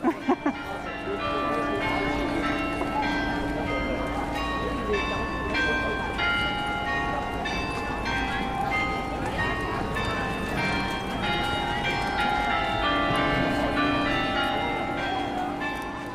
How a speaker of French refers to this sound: Et c'est joyeux hein, de traverser Wiesbaden avec le carillon.